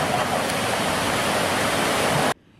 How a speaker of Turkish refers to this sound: Dere Kızık ve Sayıtabat dereleri yer yer taştı, ağaçlar kökünden söküldü, küçük çapta pek çok heyelan oluştu.